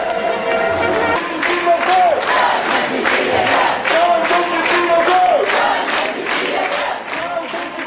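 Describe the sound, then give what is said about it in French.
A loud crowd chants political slogans in a steady, rhythmic cadence, voices punching out each beat together for the whole stretch, with a megaphone-amplified lead voice launching slogans that the group repeats collectively. “mégaphone permet de lancer un slogan qui peut être repris, répété, chanté collectivement.”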